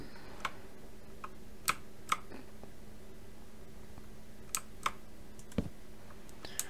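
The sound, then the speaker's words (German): Scattered, irregular keystrokes clack on a computer keyboard, a dozen or so sharp taps with pauses between them, fairly quiet over a faint steady hum, with no one talking. “Ich kann mit meiner Tastatur heute irgendwie nicht umgehen.”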